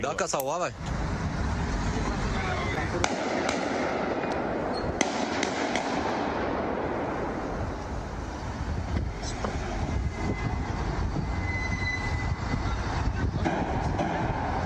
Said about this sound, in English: Here was there was a scene. It's it's far away. There is some violence in the scene, but it's kind of far away. Um, you'll hear some gunshots towards the ambulance.